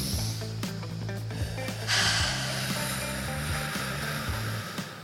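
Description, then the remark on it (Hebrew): A long, deep breath drawn in and slowly let out, taken together, a soft airy hiss that swells near the middle over a low steady hum, with no talking. “בואי ניקח איזה... נכון, נשימה, כמו שאת בטח עושה בשיעורים שלך.”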